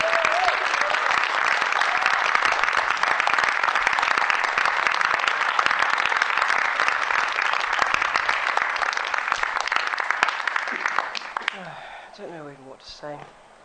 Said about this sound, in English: But anyway. Big round of applause